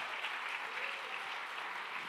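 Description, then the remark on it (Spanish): A crowd claps steadily and continuously, a dense, even wash of many hands applauding at once with no pauses, fairly loud and filling the whole moment. “Vamos, denle el aplauso fuerte, porque Dios”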